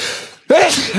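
A single loud sneeze bursts out abruptly after a brief hush, a sharp explosive blast of breath with a voiced edge that trails off noisily.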